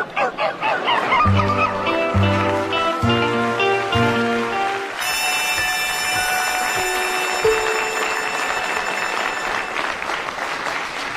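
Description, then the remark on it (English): A man's voice, Bill Pertwee, imitates the bark of a dog named Daphne, giving about four deep, evenly spaced barks, followed by a burst of applause and whistling from an audience. “The part of the dog's bark was played by Bill Pertwee.”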